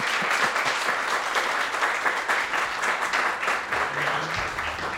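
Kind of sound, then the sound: crowd, audience applause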